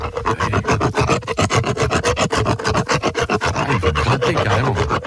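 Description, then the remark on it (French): Steady, rapid back-and-forth rasping of an angled dental rasp filing sharp enamel points off a horse's teeth to remove excess enamel, loud, with harsh gritty strokes repeating about four or five times per second and no talking. “Je me positionne sur les surdents. Donc j'incurve un petit peu ma râpe, je, je, lui donne un angle. Et là, je vais commencer, donc vous entendez le bruit.”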